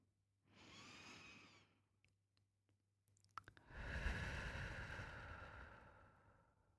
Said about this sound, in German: Einatmen Ausatmen.